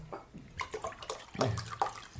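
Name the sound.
water running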